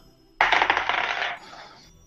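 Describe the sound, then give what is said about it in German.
A twenty-sided die clatters and tumbles across a hard tabletop and lands on a four, a loud, quick rattling burst of about a second that settles into a softer fading rumble. No one speaks. “ich würfel ein W20.”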